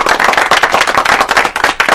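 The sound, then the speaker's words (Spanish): A steady burst of applause from a group, dense overlapping claps sustained loudly and evenly for about two seconds with no voices heard. “yo le quiero dar, señores, un aplauso a, a, esos que le”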